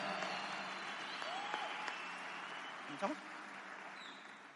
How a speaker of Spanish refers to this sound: Y realmente un fuerte aplauso a toda esta organización que hace que nosotros hoy podamos estar disfrutando de esto.